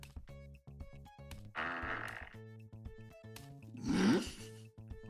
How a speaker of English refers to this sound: what was that? What was I think she farted.